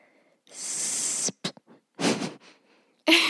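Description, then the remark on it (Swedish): A voice imitates the electric hiss of a Segway: a long, steady breathy whoosh, a few short puffs, then a second shorter hiss, ending with a brief voiced burst. “Om de låter på något sätt så känns det som att de låter så här...”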